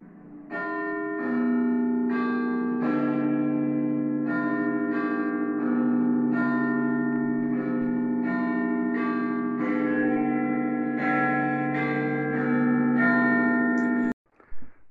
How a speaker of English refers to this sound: That song that clocks play, it's a real song. Like it came from the late 1700s.